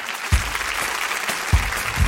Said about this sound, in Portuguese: Vamos receber um astrobiólogo que é um dos contemplados no edital do Instituto Serra Pilheira, que financia pesquisa e divulgação científicas. Aplaudam Douglas Galante.